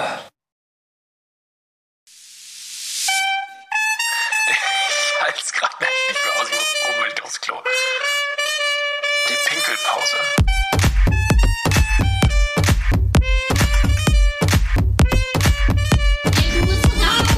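An intro jingle starts after a brief silence with a rising whoosh, then bright, plucky melodic notes; partway through, a loud, steady beat with punchy bass kicks in and drives it to the end.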